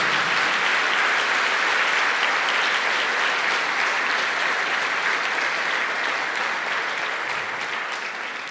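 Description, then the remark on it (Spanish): An audience applauds for the Lord during a sermon, a loud, dense wash of many hands clapping without pause for the whole stretch, easing off only slightly at the very end. “Dele fuerte ese aplauso al Señor.”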